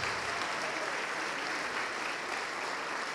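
An audience claps steadily and densely for several seconds to the name of Jesus, a continuous wash of many hands applauding at once, even in loudness, with no one speaking over it.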